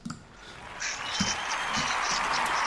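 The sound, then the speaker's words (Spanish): A crowd's applause sound effect: dense, crackling clapping that swells in over the first second and holds steady and fairly loud to the end, with no voices. “claro, bueno, le meto unos aplausos, pero a mí un aplauso, este aplauso va a ser un aplauso al compromiso eh, así como, como palabra gorda, compromiso y, sacrificio.”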